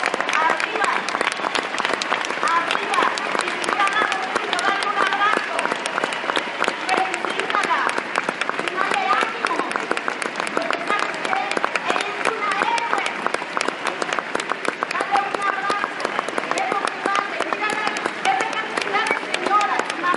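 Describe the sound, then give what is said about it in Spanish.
An audience applauds steadily for about twenty seconds for single mothers who stood up, a loud, dense wash of many hands clapping at once, with crowd voices mingling underneath and no pause in the sound. “Y los demás, ayúdenme a darles un aplauso.”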